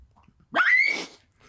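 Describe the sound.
A person imitates the sharp yelp of a dog getting its tail stepped on: one loud, rising squeal lasting about half a second, with quiet before and after.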